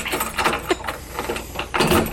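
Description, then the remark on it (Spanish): A door is pulled shut with a few short scraping, rattling bursts and a firmer knock near the end, moderately loud against a quiet background. “Ya está cerrada la puerta.”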